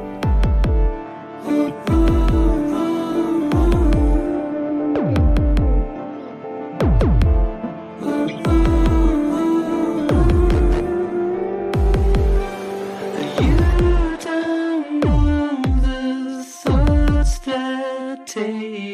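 A song from a newly released solo album plays loud, driven by heavy, regularly spaced low drum hits under sustained droning bass and bright layered instrumental tones, with no clear vocals in this stretch.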